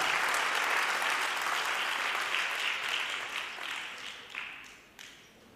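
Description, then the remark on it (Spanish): An audience applauds with dense, steady clapping that stays strong at first, then thins out and tapers, with a few last scattered claps before it fades. “Alguien iba a ofrendar, pero creo que, digo, aplaudir, pero lo dejaron solo y, por eso no siguió.”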